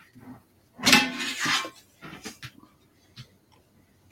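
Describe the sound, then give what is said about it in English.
A tin of popcorn rattles and clatters: one loud, sustained shake near the start, then several shorter, softer rattles trailing off with brief pauses between them. “That's my tin of popcorn.”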